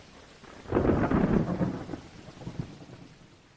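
Steady rain falls with a broad hiss while a deep roll of thunder swells in early and slowly fades, leaving the rain continuing softly; no voices.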